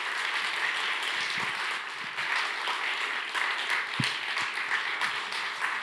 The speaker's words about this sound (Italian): lascio la parola, vi chiedo di accoglierlo con un applauso